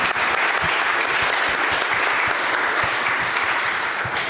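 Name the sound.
audience applause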